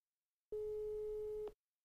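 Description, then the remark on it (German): A telephone ringing tone: a single steady, mid-pitched electronic beep lasting about one second, loud and unbroken, starting and cutting off abruptly with silence on either side and no voices. “Es klingelt. Es klingelt.”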